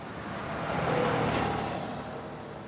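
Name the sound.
car driving off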